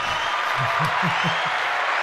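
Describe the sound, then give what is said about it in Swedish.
Steady applause fills the whole moment, a dense wash of clapping at a fairly even level, with a low murmuring voice faintly underneath. “Den är ju nästan värd en applåd.”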